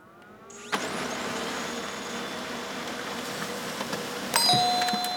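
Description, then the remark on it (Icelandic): A printer printing out pages: a sharp click starts a steady, buzzing mechanical whir that runs for several seconds, with a brief high electronic tone and clatter near the end. “Þetta er prentari, einmitt”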